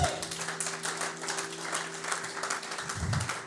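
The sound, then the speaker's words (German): An audience applauds the technicians steadily for a few seconds, a dense, even clatter of many hands with no pauses, accompanied by a faint low hum. “Diesen fetten Applaus kriegen mal die Techniker.”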